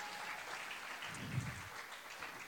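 A crowd claps steadily together after worship, a dense, even wash of many hands sustained for a couple of seconds without talking, swelling slightly in the middle before tapering off.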